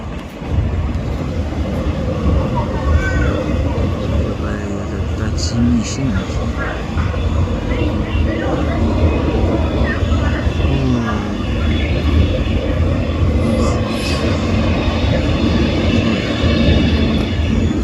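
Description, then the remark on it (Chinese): A train passes on a railway bridge opposite a covered bridge, rolling along the tracks with a steady, loud low rumble that holds for the whole stretch, with faint higher squeals and metallic clicks flickering over the roar. “就是从那这个廊桥对面的那个铁路桥上，嗯，呼啸而过的声音，有时候也也会看见看见那些那些火车，嗯，行进的样子，然后呃，就是等一下我就把那个声音放给你们听。”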